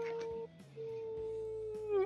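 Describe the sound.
A person imitates a wolf howl, one long sustained wavering tone held for about two seconds, fairly loud, with a brief dip midway and a rising bend at the end.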